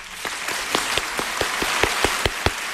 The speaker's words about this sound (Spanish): Muy bien, amigo, a este aplauso es para ti. Muchas gracias.